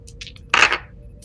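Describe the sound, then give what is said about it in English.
Dice clatter briefly across a hard tabletop during a tabletop role-playing game roll, a quick bright rattle lasting a fraction of a second, fairly loud, preceded by a few faint little clicks. “I, I, rolled a one and I rolled an eleven, which is a uh, that's a three successes.”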